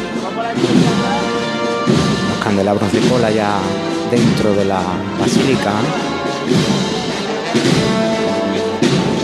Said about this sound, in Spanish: El palio ya está cuadrado con la puerta. Y ahora sí que comienza a entrar. Mientras suena la marcha